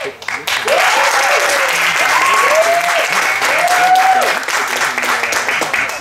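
A large audience bursts into loud, sustained applause that continues steadily for several seconds, with a few rising whoops and cheers carried over the clapping.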